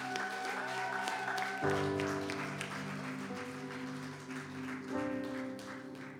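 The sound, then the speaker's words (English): A crowd claps steadily and fairly loudly as two people are welcomed up, the applause mixed with sustained keyboard or organ chords that shift a few times underneath. “So you give a round of applause”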